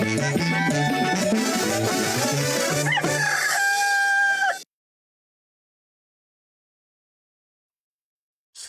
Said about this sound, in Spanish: cuando el gallo les cantó, gritando que susto les arrimó.